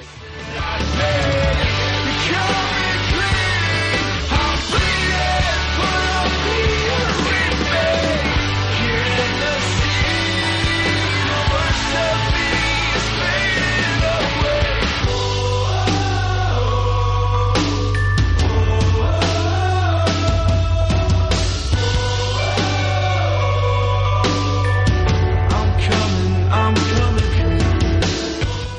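A rock song plays steadily and loudly throughout in the background of a radio broadcast, with a dense full-band sound and heavy bass; around the midpoint it shifts into a punchier, drum-driven section. No one talks over it.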